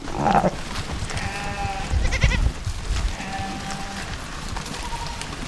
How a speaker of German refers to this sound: Ziegen und Schafe laufen durstig an einen Fluss. Auf dem Weg dahin wirbeln sie eine große Staubwolke auf.